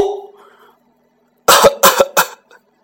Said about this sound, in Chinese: 外面传来了咳嗽的声音。